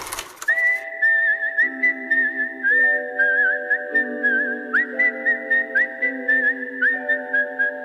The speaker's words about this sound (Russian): Думаю, саундтрек к этому фильму стал самой узнаваемой свистящей мелодией.